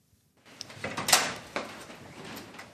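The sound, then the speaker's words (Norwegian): A door swings open with a short creak and clatter as four politicians come out, followed by a soft rustle and shuffling, with no voices. “Ei dør åpner seg, og ut kommer fire nøgde, men også litt trøtte politikere.”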